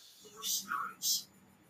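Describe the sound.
Spirit box device sputtering: two sharp bursts of hissy static with a short warbling tone between them, over faint steady background noise and whisper-like radio fragments rather than clear speech.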